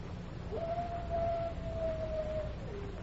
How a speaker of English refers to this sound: Coyote. Maybe.